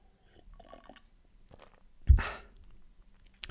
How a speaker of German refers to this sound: Kurzer Schluck Wasser.